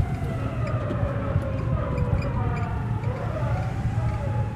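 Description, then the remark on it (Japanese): An unmarked police car's siren wails in rising and falling sweeps as the car speeds away fast, moderately loud, over a constant low rumble of traffic and engine noise. “覆面パトカーが覆面パトカーがすごい勢いでき去っていきますよ”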